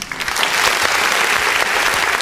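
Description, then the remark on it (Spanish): A small group on a show gives a steady burst of applause to welcome back a returning guest. The clapping is dense and bright, stays fairly loud and even throughout, and has no talking over it. “Aplausos, por favor.”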